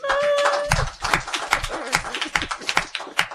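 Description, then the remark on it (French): A TV show audience breaks into applause for the debaters at the end of a debate, a dense patter of overlapping hand claps that holds steady for a few seconds, with a brief tonal sound at the very start. “on en rit encore et j'aimerais bien qu'on les applaudisse s'il vous plaît.”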